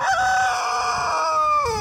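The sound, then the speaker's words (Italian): A rooster crows loudly, one long strained cock-a-doodle-doo that holds steady and then drops in pitch at the end, in the village of Castelluccio Superiore in Pollino National Park, Italy. “ha anche delle bellissime oche è un gallo in forma smagliante che cantava poco fa Guardate.”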